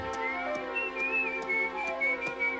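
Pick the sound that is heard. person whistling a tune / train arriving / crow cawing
person whistling a tune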